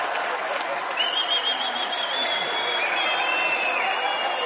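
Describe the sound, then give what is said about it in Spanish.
A crowd applauds steadily with dense, sustained clapping, a few cheers and whistles rising over it, with no pause throughout. “E incluso es más, lo vamos a aplaudir y felicitar.”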